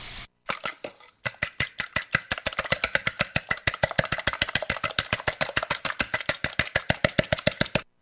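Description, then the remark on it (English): An egg being whisked in a bowl: a fast, steady run of light clicking strokes, fairly loud, repeating several times a second for about eight seconds with no talking. “That's uh, beating an egg. Whisking, whisking an egg.”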